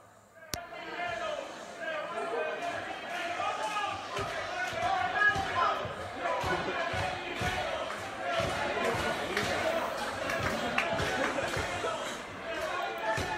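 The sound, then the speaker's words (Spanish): A packed audience in the Retiro cinema laughs and shouts over one another in a dense, continuous roar of many voices, some yelling 'give me back my money', with occasional louder yells and a sharp thump near the start. “Bueno, hay gente riéndose, se puede escuchar, y hay gente gritando devuélveme el dinero, porque obviamente que hay gente que fue y pagó una entrada al cine para ver la película en cuestión”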